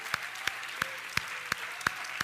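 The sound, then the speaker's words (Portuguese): An audience claps for God in the name of Jesus, in a steady, even rhythm, seven sharp unison claps about a third of a second apart, over a constant bright wash of crowd noise. No one speaks. “Se o Senhor é a tua alegria, dê um forte aplauso a Ele em nome de Jesus, aleluia.”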